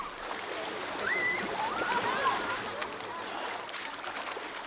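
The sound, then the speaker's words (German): Outdoor swimming pool ambience: a steady wash of splashing water with the rush of an ice-cold shower and water lapping at the pool edge, voices, and a child's brief high-pitched shriek rising over it for a moment. “Außerdem dieser Schwimmbad-Sound.”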